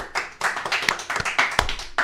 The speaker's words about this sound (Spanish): Gracias. Un aplauso, un aplauso, por favor, un aplauso.